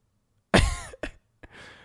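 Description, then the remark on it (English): A person imitates the explosive, choking snore of someone sleeping: one loud, harsh snort burst, then a short sputtering catch and a brief gasp trailing into a breathy exhale. “sometimes you'll have these like explosive snores.”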